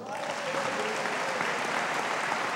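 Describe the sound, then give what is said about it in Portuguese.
A church audience applauds the Lord together, a steady, dense wash of clapping hands that holds at an even level throughout, with no single voice standing out. “Então é aplauda ao Senhor.”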